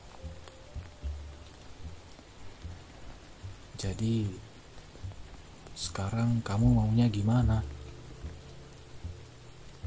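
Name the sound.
rain falling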